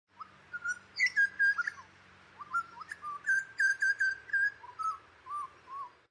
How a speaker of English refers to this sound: There are some people who have studied intensely in great detail for most of their curious science lives the songs of butcherbirds and have worked out that every clan has its own distinctive song cycle qualities